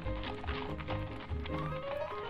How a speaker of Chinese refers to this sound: 盐巴和胡椒并不在意，仍旧咯哒咯哒，不慌不忙的往前走。米莉和茉莉说。 听马蹄的声音就知道，我们现在很安全。